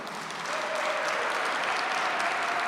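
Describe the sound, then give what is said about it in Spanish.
An audience at a worship service claps steadily in praise of the Lord, a dense wash of many hands that swells slightly after the first half second and holds at an even, fairly loud level with no voices. “Perdónenme, pero ese aplauso no es como en el cielo.”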